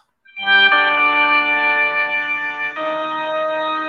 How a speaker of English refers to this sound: Now here's my favorite version of Simon's theme, the one from Super Castlevania 4.